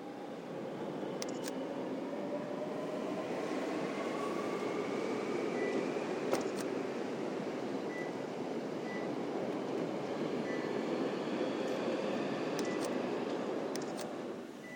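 A train rumbles past at Hankyu Ōyamazaki Station in Japan in a steady, continuous roar with faint metallic wheel squeals and a few sharp clicks, easing off slightly at the end. No one speaks.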